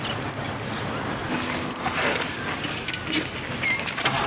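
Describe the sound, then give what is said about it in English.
An old car engine turns over and settles into a rough, rattly running rumble, loud, holding steady for a few seconds with no voices. “Sonny, you ever owned a car before? No. I just got my license. Start her up.”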